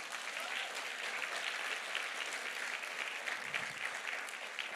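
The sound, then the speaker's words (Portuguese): An audience claps for the Lord in a steady, dense round of applause that holds at an even level for the whole stretch, with no voices standing out above the clapping. “Deus salva de palmas ao Senhor.”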